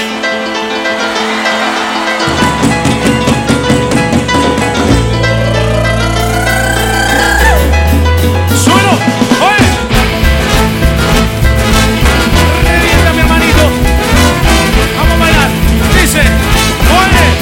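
A loud, full-band ska rock song plays with driving drums, bass and bright horn-like melodies, building after a brief sparse intro into a dense, energetic groove with no talking over it.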